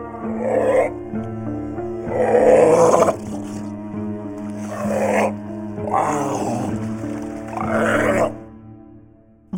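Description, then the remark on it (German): A harbor seal on the North Sea coast growls and grunts in a series of about five deep, rumbling bursts with short pauses between them, fairly loud, with no voices present. “Das ist die Zeit der Seehunde, die unter Wasser nach Fisch jagen und dafür mit einem perfekten Ortungssystem ausgerüstet sind.”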